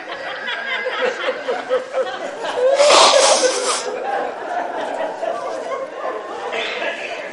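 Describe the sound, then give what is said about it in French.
A single loud sneeze bursts out partway through, sharp, amid a steady background of murmuring voices and light chatter. “Mouche-toi.”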